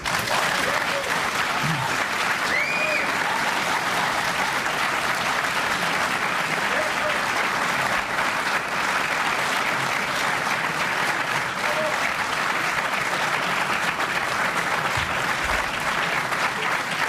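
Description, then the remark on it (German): An audience applauds steadily for around seventeen seconds, a dense, even wash of clapping that holds its loudness throughout, with a few faint voices and whoops scattered underneath. “Klatschen Sie bitte nicht bis 12 Uhr.”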